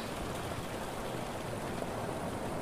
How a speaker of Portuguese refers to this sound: Mas quer saber? Essa chuva tá bem mais dramática e ninguém fala sobre.